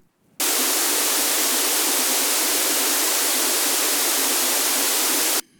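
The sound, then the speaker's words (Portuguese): A steady burst of stereo test noise with its two channels out of phase, played in a listening test comparing in-phase and out-of-phase signals: a loud, even hiss that starts and stops abruptly, lasting about five seconds and sounding thin, with little bass. “Both channels out of phase.”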